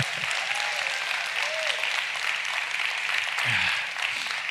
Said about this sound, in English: Number three, oh, I'm preaching better than you're clapping this morning.